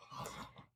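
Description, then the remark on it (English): A dog yawns once: a brief, breathy whine-like exhale lasting under a second that trails off quietly, with no talking. “And that's my dog. That's my dog yawning, listening to me”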